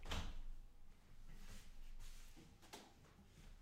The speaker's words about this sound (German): Okay, ich muss kurz die Tür zumachen.